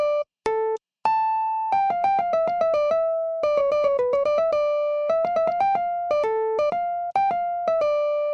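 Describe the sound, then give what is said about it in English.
A single instrument plays the rectus (upright) form of a fugue theme: a steady line of clear, bright sustained notes stepping up and down in an even rhythm, with no talking, ending on a lower held tone. “Now I'm going to play the rectus theme for you to show you that it is indeed the opposite.”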